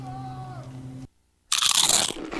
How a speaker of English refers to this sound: You know that sound anywhere. It's the crisp crunch of that first nacho chip. With its perfect cheese to sour cream ratio sitting atop a layer of delicious beans, it's a sip away from perfection.